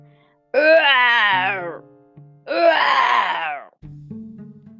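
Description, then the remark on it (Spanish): A voice, reading a story aloud in Spanish, imitates the monsters roaring their terrible roars when the hero reaches the place where the monsters live: two long, loud, wavering growling cries, each rising and falling in pitch, separated by a short pause. “Y cuando llegó al lugar donde viven los monstruos, ellos rugieron sus rugidos terribles.”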